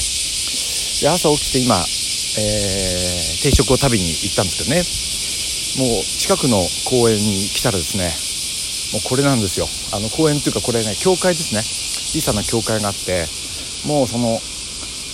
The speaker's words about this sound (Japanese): さっき音を1回取ったんですけど聞こえなくて もうセミがうるさすぎて聞こえなくてもうもう1回あの音を取り直してるんですけどねあのー、すごいですもうこんなの聞いたことないっていうぐらい声が聞こえないですよね